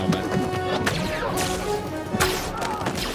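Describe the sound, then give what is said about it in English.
A kick lands with a sharp smash against a stormtrooper's hard helmet, one of a few loud, cracking impacts set against a dense, busy background of action noise and sustained tones. “Little kick. Smashes the face of a stormtrooper”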